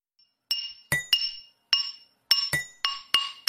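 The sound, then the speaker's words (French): Blacksmiths' hammers ring out against red-hot iron, about nine sharp metallic blows in an uneven back-and-forth rhythm, each leaving a bright ringing tone. Clear, with no voices. “Par hasard, alors qu'il se promenait, il écoute des forgerons battre le fer incandescent et les sons des marteaux qui se répondent en ordre précis.”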